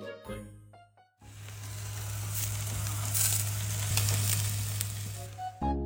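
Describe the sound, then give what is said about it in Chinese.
Steady, dense sizzling of a home BBQ, meat grilling on a home kitchen stove during the pandemic with oil sizzling, a broad crackling hiss with occasional louder pops, riding over a low constant hum; it starts after a brief quieter moment with faint clinks. “就给我又发来了这么一段 BBQ 的声音，非常认真的 BBQ。”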